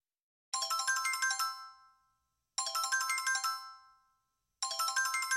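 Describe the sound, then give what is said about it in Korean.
A bright electronic phone ringtone for an incoming call plays a short melodic phrase three times in a steady repeating cycle, loud, with brief silences between bursts and no voices. “한 통의 전화가 오기 전까지 말이야.”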